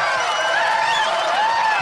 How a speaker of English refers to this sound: that's our audience cheering. That is not the Views audience cheering.